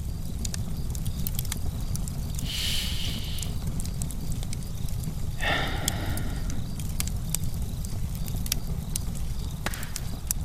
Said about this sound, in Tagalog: Isipin mo lamang ang marikit na apoy sa iyong harapan. Damhin mo ang lagablab na hatid nito.